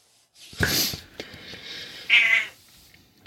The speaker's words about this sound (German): Au, die Katze hat Hunger. Nee. Katze ist wahrscheinlich wach geworden und beschert sich jetzt. Will Beachtung haben.